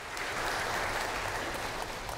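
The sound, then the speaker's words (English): A church audience claps steadily in a round of applause and appreciation, a dense, sustained patter of many hands with no voices breaking through. “If y'all would please join me in a round of applause and appreciation”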